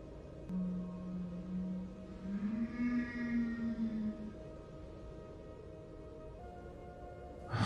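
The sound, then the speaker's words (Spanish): A bloodcurdling scream rings out in a house as one long, eerie wail lasting several seconds, its pitch swelling upward midway before trailing off, heard alone over a faint hiss. “De nuevo escuché ese mismo alarido que lava la sangre, pero ahora del otro extremo, del otro lado de la casa.”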